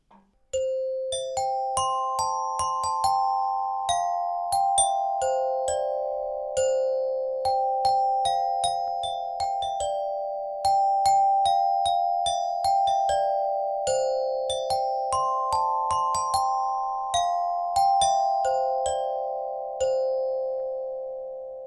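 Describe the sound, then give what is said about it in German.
A glockenspiel plays a short solo melody alone, bright struck notes ringing out one after another in a steady, moderate rhythm, each chime lingering briefly before the next. “Und wie letztes Mal kommt jetzt an dieser Stelle ein kleines Glockenspiel-Solo, damit ihr das Thema raten könnt.”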